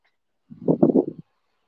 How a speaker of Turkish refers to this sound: Ben buradayım ama senin sesin çok kesik gelmeye başladı yayın beri